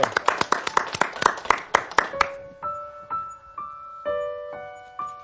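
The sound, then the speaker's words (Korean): A studio audience at a live show claps on request in a quick, steady rhythm for about two seconds, with a dozen or so sharp beats, before sustained melodic instrument notes take over. “여러분 예. 박수 부탁드리겠습니다.”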